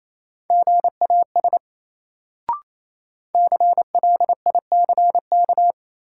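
Fast Morse code at 28 words per minute, sending drill words as a clean, steady mid-pitched tone in quick dots and dashes, two bursts separated by a pause with a single sharp click, played alone with no voices.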